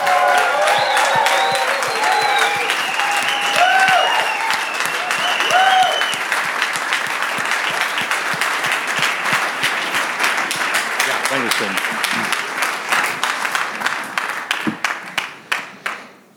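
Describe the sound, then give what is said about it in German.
Loud, sustained applause from a large audience welcoming a speaker onto the stage in Nuremberg, dense clapping with cheers and whoops early on, continuing steadily before thinning into scattered claps that fade out at the end. “Er liebt die Bibel, er liebt Gottes Wort, er liebt Menschen und Jesus und wir wollen ihn hier auf der Bühne mit einem tosen Applaus begrüßen.”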